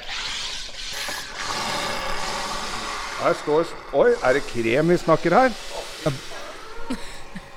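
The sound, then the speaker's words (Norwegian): A home soda maker carbonates water in a bottle set into the machine after the carbonation button is pressed, with a loud, steady hissing rush and a buzzing, rattling undertone for about three seconds, then stops as people start talking. “Alle, det, veldig mange kjenner jo til disse maskinene, og så er det bare å trykke på kullsyre. Skal vi se. Her begynner det å boble.”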